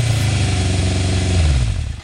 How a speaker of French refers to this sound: J'entends une moto qui arrive